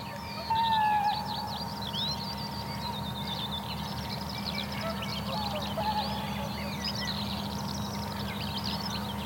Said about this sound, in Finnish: No nyt joutsen pari lentää tuosta juuri ohi ja toitottaa oikein komeasti. Se on hieno kansallislintu.